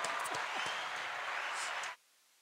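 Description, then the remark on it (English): Loud, dense applause with many hands clapping at once in a steady wash, lasting about two seconds before cutting off abruptly into silence. “I'll give you applause for that.”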